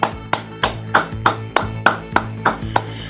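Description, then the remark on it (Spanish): Steady rhythmic clapping welcoming the day's first guests, about ten sharp, evenly spaced claps in unison at a brisk pace, fairly loud, with a low sustained tone humming beneath them. “Ya están nuestros primeros invitados el día de hoy muy a la distancia, pero me da mucho gusto y me pueden ayudar para recibir con un fuerte aplauso”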